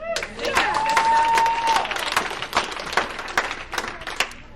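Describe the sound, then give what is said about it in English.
An audience claps steadily with scattered cheers and voices, and a long, high whistle rings out early before the applause continues at a lively, uneven pace. “Now, some of you were cheering, nodding, clapping, like these were truths that were self evident.”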